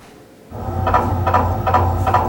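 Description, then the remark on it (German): An MRI scanner is switched on and runs steadily, a loud machine with a deep low hum under rhythmic, pulsing knocks repeating about twice a second, about as loud as a power drill. “Soll ich Sie mal einschalten, damit Sie wissen, worauf Sie sich einlassen?”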